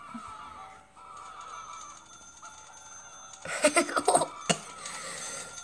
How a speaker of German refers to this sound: geh bitte weg, wenn du hustest.